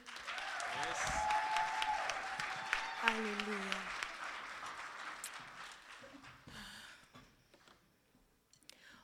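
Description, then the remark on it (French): A church audience applauds for Jesus during a morning service, a dense, steady patter of clapping that swells and then thins out toward the end, with a voice calling out over it. “On peut applaudir Jésus ce matin.”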